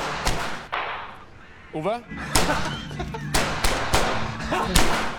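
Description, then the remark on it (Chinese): Loud, sharp gunshots from blank rounds crack out in an irregular series of about seven bursts, with a brief high vocal cry between the early shots and a low rumbling background. “大家别怕，枪里装的都是空包弹，空包弹算是个小伏笔，大家可以记一下。”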